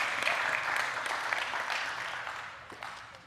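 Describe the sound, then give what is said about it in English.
Sustained applause from a sizable crowd at an evening church service, a dense, steady wash of many hands clapping at once, loud, tapering slightly toward the end with no one speaking over it. “Keep clapping while I drink some water.”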